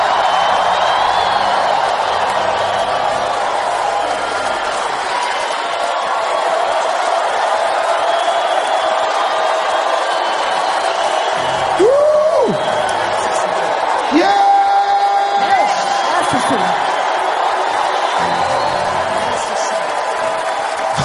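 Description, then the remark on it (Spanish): A large church audience shouts and cheers for joy to the Lord in a sustained, dense roar, with individual whoops and yells rising above the crowd toward the middle and a few voices calling out. “Entonces dale un grito de júbilo al Señor.”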